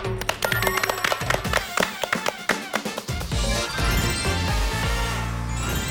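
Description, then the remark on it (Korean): An audience applauds to welcome a lecture by Professor David Suh. A fast scatter of many overlapping claps lasts about three seconds, then merges into a denser, steady wash of sound with sustained tones underneath. “데이비드 서 교수님의 강의 박수로 맞아 주시죠.”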